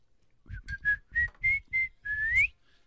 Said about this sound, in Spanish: Eh, eh chiflo, chiflo mucho.